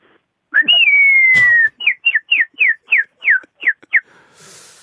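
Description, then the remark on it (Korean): A front-door doorbell chime in a bird call: one long, clear whistled note, then a quick run of about nine short, bright chirps. It sounds fairly loud, with no talking. “아 현관문 벨 새소리 들어볼게요.”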